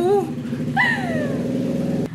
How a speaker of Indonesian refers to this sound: Waduh, ini motor kencang sekali ya. Motor siapa kah itu?